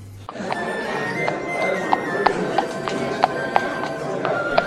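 A town square sound effect: horse hooves clip-clop at a steady walking pace over a constant murmur of town-square bustle, the crisp hoofbeats standing out above the background.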